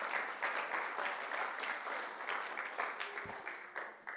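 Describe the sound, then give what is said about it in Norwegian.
A crowd applauds after the first point of a talk on the words of Jesus, many hands clapping in a dense, continuous patter that holds at a fairly even level throughout, with no voices standing out. “det har til og med vært en, eh, en applaus, det, altså.”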